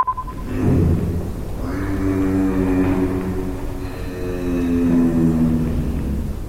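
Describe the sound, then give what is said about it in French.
A giraffe's low, snore-like humming: a steady droning tone with rich harmonics that wavers slightly in pitch, sustained for several seconds with no voices present. “Ce que vous entendez, c'est le cri d'une girafe, car contrairement à ce que l'on pensait, la girafe n'est pas muette.”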